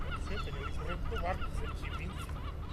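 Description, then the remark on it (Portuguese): A noisy crowd of seagulls calls over and over outdoors at a fishing harbour, harsh squawks overlapping continuously, with a low rumbling background throughout. “Portanto, à volta da mesa, mas ao ar livre, com a vizinhança das gaivotas.”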